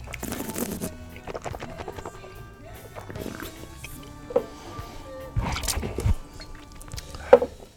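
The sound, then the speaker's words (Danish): Wet slurping and swishing of wine drawn through the lips by a Master of Wine blind-tasting a hard-to-guess wine at restaurant Palægade, coming in several irregular bursts against a quiet background. “mens han sidder på restaurant Palægade og blindsmager en vin, som er vanvittigt svær at gætte.”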